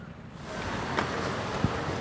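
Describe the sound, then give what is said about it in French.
Steady city traffic rumble on a busy square at République, hundreds of cars droning continuously, with a couple of brief knocks breaking through the constant wash of road noise. “À République, il y a des centaines de voitures, de touristes, de skaters, de gens qui attendent, de gens qui passent.”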